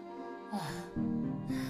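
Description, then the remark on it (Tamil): Heavy, out-of-breath panting: a few ragged, breathy gasps with voiced groans between them, fairly quiet, like someone winded after exertion. “மூச்சு வாங்குதுப்பா”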